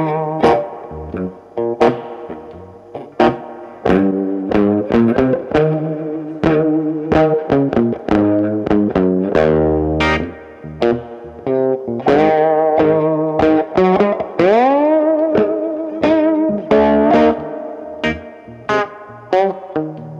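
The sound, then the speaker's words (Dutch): A distorted electric SG guitar played with a slide, loud, with gliding notes and bends between choppy, repeated phrases, played solo for about twenty seconds with no talking. “Met die SG dan weer wel, die, die SG die ik heb, kan ik zo even laten horen.”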